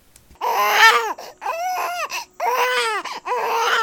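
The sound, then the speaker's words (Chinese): A baby boy cries and wails loudly in four long, strained bursts with brief gasping pauses between, shouting to call for his parents, who do not respond, the voice rising and falling in pitch with a harsh, shouting edge. “但有一天，这个公司出了点状况，老板叫不动他的员工，尽管他在努力的喊叫，他的员工都没有回应。”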